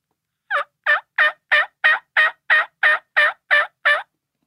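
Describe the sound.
A series of eleven short, evenly spaced turkey yelps from a hand-operated MeatEater turkey hunting call, played in a conservative calling style, steady in rhythm and moderately soft, with no talking over them.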